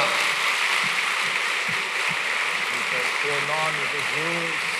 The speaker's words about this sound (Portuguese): Pode aplaudir, pois ele é digno. Aleluia!